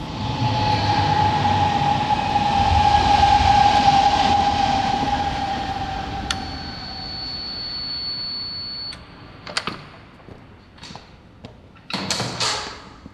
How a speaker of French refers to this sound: Me voici donc à Charenton, pas loin de la voie ferrée. On va sûrement entendre passer quelques trains pendant cette interview.